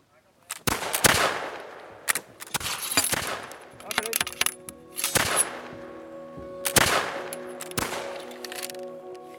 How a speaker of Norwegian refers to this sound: Var det et av disse muskettskuddene som drepte Karl 12. den mørke torsdagskvelden 11. desember i 1718?